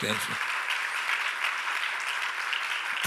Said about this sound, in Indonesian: Berikan tepuk tangan bagi Tuhan